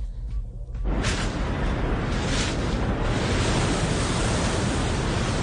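Ocean surf roars steadily, a dense wash of crashing waves that swells up after a quieter first second and stays loud throughout, with no voices; the surf is heard in a 2017 beachwear commercial showing someone learning to surf.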